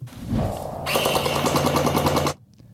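A small robot's gel-bead blaster whirs up briefly, then fires a rapid, steady burst of sharp clicking shots for about a second and a half before stopping abruptly. No one speaks.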